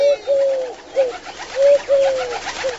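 A wood pigeon, the story character Tortel, coos in a soft, low, hooting phrase of about six notes, some short and some drawn out, repeating in a steady rhythm with no voices, as it flies off into the sky.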